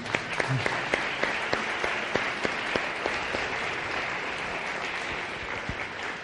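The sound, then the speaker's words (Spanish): Steady applause from a crowd for a presenter after a presentation, a dense wash of many hands clapping at a fairly even loudness for several seconds, with a few sharper individual claps standing out. “Así que, por favor, ahora le devolvemos el aplauso que la debo.”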